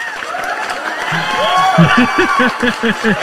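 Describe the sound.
A group claps steadily in a dense wash of noise, with rhythmic voiced bursts like laughter or cheering building underneath partway through.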